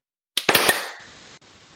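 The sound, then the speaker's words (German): A quick burst of sharp hand claps made to sync the start of a recording, three or four cracks landing slightly out of sync, then a fading noisy tail. No voices are heard. “Okay, dann klatschen wir uns jetzt ein auf der gedachten 4.”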